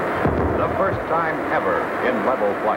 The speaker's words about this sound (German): Er erreicht eine Geschwindigkeit von 1299 Kilometern pro Stunde, 1,06 Mach. The really big moment. Through the sound barrier.